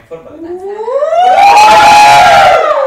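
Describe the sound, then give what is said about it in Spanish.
Studio staff let out a loud group shout of greeting, voices sliding upward in pitch and holding a sustained, ragged yell for about two seconds before cutting off. “Mira, Zaragoza Garza, que ama nuestro programa, que por favor le manden un saludo en forma de grito, el staff.”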